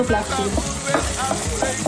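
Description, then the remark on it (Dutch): A hot Surinamese spice paste sizzles steadily as it fries in a pan over low heat for one minute, with repeated scraping and clacking as it is stirred, moderately loud, with no one talking. “Bruid Surinaamse kruidenpasta gedurende 1 minuut op laag vuur.”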